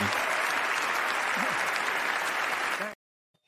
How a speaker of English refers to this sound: We just want to um, put on some claps. Oh, you won't be able to hear them, but.